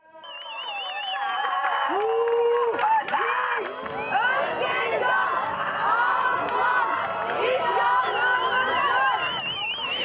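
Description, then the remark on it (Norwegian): A large protest crowd in the streets of Turkish cities shouting and chanting clear, rhythmic slogans such as "Stop the killing of women", many voices overlapping in a loud, continuous roar, with a few high wavering whistle-like tones riding above the din. “Med tydelige og taktfaste rop tar de et oppgjør.”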